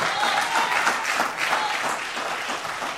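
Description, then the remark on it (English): An audience claps in praise of God steadily throughout, a dense, continuous patter of many hands at an even loudness, with faint voices mixed into the applause. “Do I can I get a hand clap of praise in it?”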